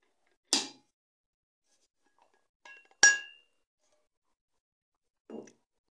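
A glass clinks a few times while someone drinks water: sharp, bright taps at irregular moments, one ringing a little longer, with quiet gaps between and no talking.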